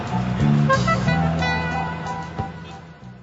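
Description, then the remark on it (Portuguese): A bus engine rumbles with a steady, low idling drone, a few faint clanks and shifts in pitch as a bus full of tourists from Moscow pulls up and settles at the main entrance of the Hotel Forum at Alexanderplatz, Berlin. “Na entrada principal do Hotel Fórum, acabou de chegar um ônibus cheio de turistas de Moscou.”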